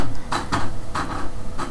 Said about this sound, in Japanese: ちょっとあの猫がですね扉こうガチャガチャまあそれはいいんですちょっとね今音がしたんですけど猫が入ってきたんですけどね